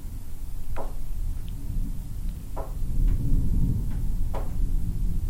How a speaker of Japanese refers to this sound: 今ね今僕はですねガーデンルームにいるんですよ雨はねそんなに降ってないけど雷がすっごいあめっちゃ光ったビッカビカ光りまくってすごい音がしています